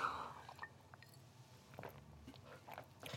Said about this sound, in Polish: Muszę się napić łyka, bo już gadam i gadam.